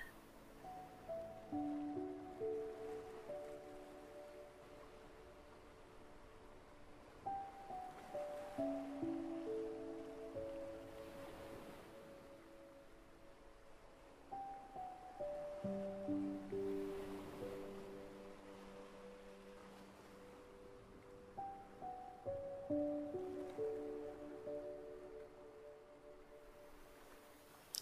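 Gentle sea waves wash in and recede on a sandy beach in slow swells roughly every seven seconds, mixed with soft, cascading musical tones that ripple down over each surge.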